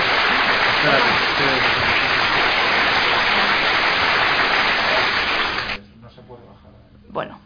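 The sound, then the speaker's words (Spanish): A crowd bursts into sustained, dense applause that fills the room for several seconds, with some voices faintly audible underneath, before it stops abruptly and a voice speaks briefly. “Me han interrumpido con unos aplausos.”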